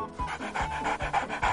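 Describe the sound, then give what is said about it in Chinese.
A dog panting in quick, steady rhythm, its breathy huffs repeating about every half second at a moderate level, with no voices present. “狗狗。在哪里呀？过来让我摸摸。”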